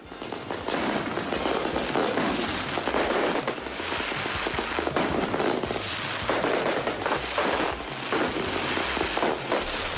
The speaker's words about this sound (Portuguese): Comerciantes, como Juliana contou, soltando fogos de artifício para celebrar a volta das atividades.